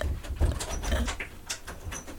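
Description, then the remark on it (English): A door is handled and closed as a person leaves, with a series of soft knocks, scrapes and rattles over a couple of seconds against a low rumble; no one speaks. “did the mic pick up the door leave it?”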